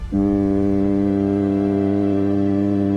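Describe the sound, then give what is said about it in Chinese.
A deep, steady steam whistle of the ship Taiping sounds after a brief rumble as the ship slowly leaves Zhenhai port in Ningbo, holding one low, rich harmonic tone loudly and unwaveringly for about three seconds, with no voices present. “随着沉闷的汽笛声响起，太平轮缓缓驶离了宁波镇海港。”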